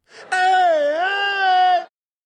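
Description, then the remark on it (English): A lone fan lets out one long, loud cheering whoop that holds for about a second and a half, its pitch dipping and rising before it cuts off sharply, with no other voices. “So here's one cheering fan,”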